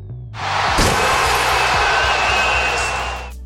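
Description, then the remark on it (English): A basketball dunk slams the rim with one sharp metallic bang, and a loud, steady crowd roar swells underneath and carries on for several seconds before fading. “Until then, we'll always have the sound of dunks smashing the glass ceiling.”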